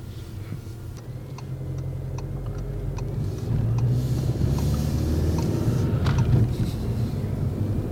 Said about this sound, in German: und dann fahre ich langsam los. Okay. Allerdings sind wir auf dem Parkplatz hier natürlich, das heißt äh, 10 km/h ungefähr.